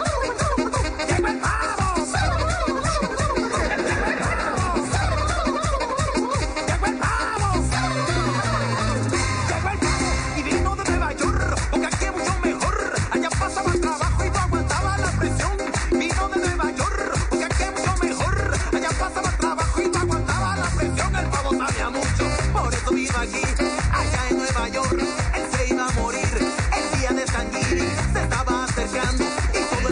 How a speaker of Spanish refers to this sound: canción absurda de merengue